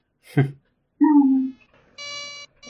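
An electronic buzz sounds in short bursts, shifting from a lower droning tone to a higher, harsher one, fairly loud, after a brief noisy thump at the start.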